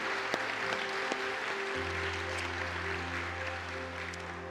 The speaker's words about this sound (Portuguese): Aplauda o Senhor Jesus. Aleluia.